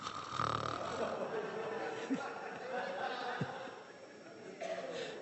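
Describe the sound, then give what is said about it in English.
A person mimics snoring with their voice: a rough, rasping breath sound that rumbles on for several seconds, fairly loud, with a brief chuckle-like break partway through. “And if you sleep on the back, on your back, and especially if you're inclined to snore, you know, it's.”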